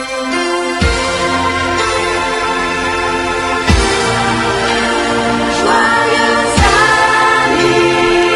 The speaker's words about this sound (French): Donc là, du coup, on va passer à la petite pause musicale.